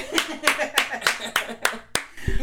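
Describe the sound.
Hands clap in a steady, even rhythm, about eight sharp claps in quick succession, fairly loud, with faint voices murmuring underneath.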